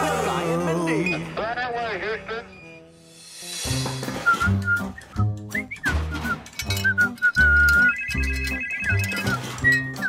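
A telephone rings with a loud, melodic electronic ringtone. Warbling tones give way to a steady, beat-driven jingle that repeats.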